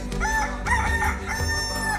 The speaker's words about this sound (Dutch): Het is half vijf in de ochtend. Als de boer door de haan wordt gewekt,